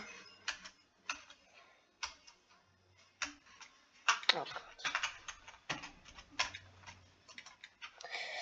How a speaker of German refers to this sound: Ich hoffe, meine Tastaturgeräusche sind auch nicht so schlimm. Ich habe die Empfindlichkeit mal runtergestellt und mein Mikrofon deutlich weiter weggepackt. Aber ja. Ich, meine Tastatur ist halt sehr laut und. Ich hoffe, ich kriege eine neue.